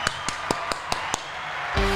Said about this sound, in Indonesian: oke tepuk tangan dong sobat-sobat